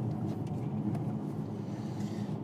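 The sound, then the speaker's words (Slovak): Steady low rumble of a car cabin on the move, a constant deep road and engine drone filling the space with no voices, unchanging in level throughout. “je dobré, že toto auto je také pohodlné a že sme v ňom práve teraz, lebo v GLAčku by sme sa vytriasli úplne najviac.”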